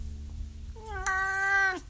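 A single drawn-out meow from Bernie the cat, fairly loud, lasting about a second and dipping in pitch at the end, over a low background rumble.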